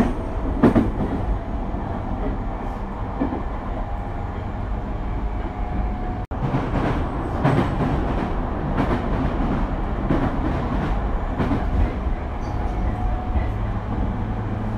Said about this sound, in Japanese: 電車に揺られて行ってきました熱海にホテルニューアカオに